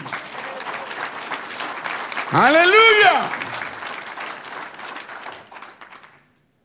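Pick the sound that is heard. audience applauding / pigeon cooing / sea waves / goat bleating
audience applauding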